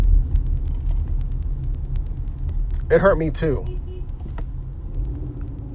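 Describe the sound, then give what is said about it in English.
A steady low road rumble from inside a moving car, with passing traffic droning throughout and a brief spoken line from a person partway through. “Well, that's what happens when you drive in traffic.”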